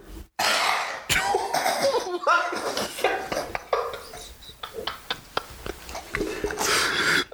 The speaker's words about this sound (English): Holy shit. Did you just cough up a gremlin? Was that real? That was that real? That's just how it is. And we're gonna, you're gonna end on that that demon coughing up blood in the background.